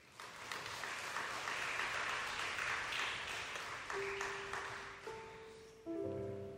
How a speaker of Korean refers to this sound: 할렐루야. 우리 하나님께 다시 한번 감사의 박수.